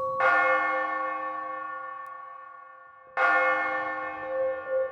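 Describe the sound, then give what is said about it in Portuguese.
Two loud, resonant strikes of a large bell in a mansion at two o'clock at night, about three seconds apart, each ringing out with a long humming decay and no voices. “Vizinhos diziam ouvir todas as noites, às duas horas da manhã, um sino tocar na mansão.”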